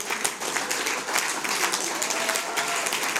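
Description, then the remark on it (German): An audience claps steadily, a dense wash of many hands sustained throughout at a moderate, even level, with no voices standing out. “ja, klatscht. Yes!”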